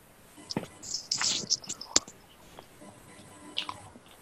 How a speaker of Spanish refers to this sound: ¿Quién, ¿Quién está comiendo, weón? Yo, weón, me estaba comiendo una galletita, perdón.